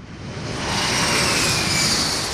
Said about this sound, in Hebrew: שומעים את המטוס שממריא עכשיו?